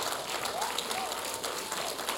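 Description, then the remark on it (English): A crowd applauding the fathers, who have been asked to stand up, in a steady, dense wash of many clapping hands that holds an even level throughout, with faint voices or brief cheers rising over it. “Come on, clap for them.”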